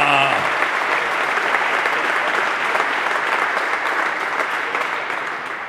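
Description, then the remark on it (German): A crowd applauds steadily for audience members in row 2 who travelled 500 kilometres from Aue, a dense wash of many hands clapping that holds strong for several seconds before starting to thin out slightly toward the end. “Erstmal, das ist ein Applauswert.”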